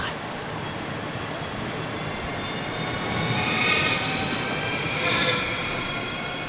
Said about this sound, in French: En attendant, je eh bien, en voiture. Le train va partir.